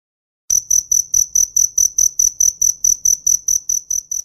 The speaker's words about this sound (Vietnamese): Các bạn thân mến, khác với ve sầu, tiếng kêu của dế phát ra thông qua sự ma sát lẫn nhau của đôi cánh. Tuy nhiên, có một điểm giống với ve sầu là cũng chỉ có loài đực thì mới kêu được.